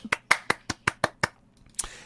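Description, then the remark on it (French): One person claps alone, seven quick, evenly spaced claps followed by a short pause and one last clap. The sharp slaps are fairly close and moderately loud, with no voices. “Alors, oh, c'est applaudissement.”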